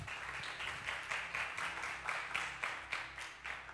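An audience applauds steadily for a few seconds, many hands clapping in a dense, crackling wash with faint rhythmic swells, at a moderate level and with no one talking over it.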